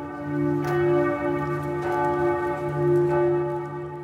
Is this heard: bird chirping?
no